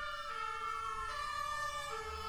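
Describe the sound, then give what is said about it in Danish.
A siren wails steadily with its pitch rising and falling, over a constant low rumble of road traffic in the city of Copenhagen. It continues throughout, with no one speaking. “Så er der lidt larm yes. fra det københavnske yes, byliv.”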